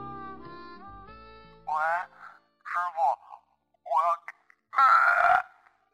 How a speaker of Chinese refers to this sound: 话没说完，那头传来撕心裂肺的呕吐。杰飞皱了皱眉，最不喜欢接喝醉的乘客了，一身酒气，话也说不清，还有可能吐在车里。